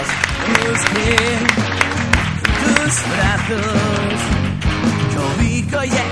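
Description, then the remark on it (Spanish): Steady, dense audience applause for the falleros and falleras of a casa fallera fills the whole stretch, loud, with voices calling out among the clapping and a musical backing underneath. “Fuerte aplauso para vuestros falleros y falleras.”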